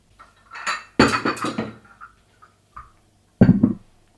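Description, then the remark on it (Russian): About ten ceramic merch mugs knock and clink together in several bright, clattering bursts, a dense rattle near the start, a few lighter taps in the middle, then another loud jumble at the end. “Они мне прислали штук 10 кружек. Сейчас мой дом – это просто свалка кружек.”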